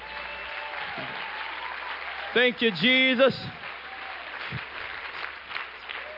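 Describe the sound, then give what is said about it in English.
An audience claps their hands unto the Lord in a dense, continuous wash of applause that lasts throughout, while a man's voice briefly speaks over it partway through. “Let's just clap our hands one more time unto the Lord.”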